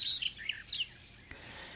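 Barred warbler song: a brief burst of scratchy, chattering high notes in quick phrases, fairly faint and outdoors, fading into quiet background after about a second.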